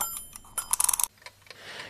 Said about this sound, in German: da tickt jetzt der Wecker